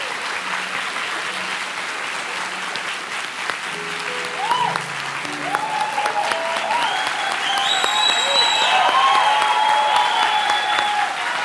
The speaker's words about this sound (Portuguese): A propósito, vire para o seu irmão e dê uma salva de palmas para ele, porque ele chegou até aqui.